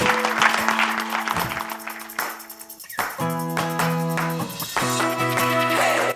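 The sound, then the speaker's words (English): A burst of clapping from a small crowd applauding a panel fades quickly as upbeat music with steady sustained tones takes over and carries on loudly to the end. “Give a round of applause for our wonderful panel.”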